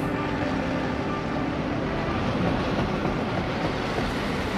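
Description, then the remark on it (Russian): A train rolls steadily along the rails near Dijon, France, in winter 1931, a continuous loud rumble with rattling low clatter that holds an even level throughout, with no voices. “Зимой 1931 года поезд, в котором она ехала, потерпел аварию возле французского города Дижона.”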